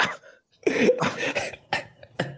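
A burst of harsh, raspy coughing and throat clearing, several loud hacks in quick succession with short gaps between them, no talking.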